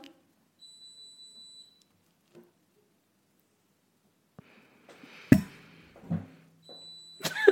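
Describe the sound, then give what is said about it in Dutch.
A dishwasher's high electronic beep sounds for about a second as it signals it has finished, followed by a few sharp clattering knocks and the start of another beep at the end. “Sorry, mijn afwasmachine is klaar.”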